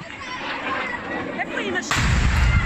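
After a stretch of noisy commotion with faint voices as people run in panic, a rocket fired from the Gaza Strip strikes right next to a children's playground in Sderot, Israel, and explodes in a sudden, loud, deep blast whose rumbling roar carries on to the end. Filmed on a mobile phone.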